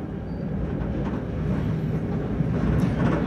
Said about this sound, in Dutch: De trein leidt ons van Chisinau, de hoofdstad, door de buitenwijken richting Bolboacha.